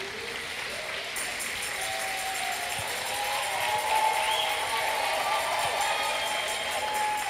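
A crowd applauds steadily for several seconds for a reverend who has stood up, a dense, even wash of clapping that stays at a constant moderate level without any speech over it.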